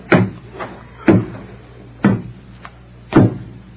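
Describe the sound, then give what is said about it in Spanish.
A wooden door is handled as a visitor is invited inside from the doorway: four sharp thuds about a second apart, with fainter clicks and creaks between them, fairly loud with no voices. “Pase aquí por dentro para que no esté en la puerta.”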